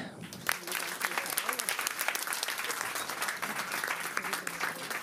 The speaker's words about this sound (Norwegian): Det var veldig, veldig bra, gutter. Jeg er så stolt av å være i samme kirke som de gutta. Eller? Altså En gang til en stor applaus til de.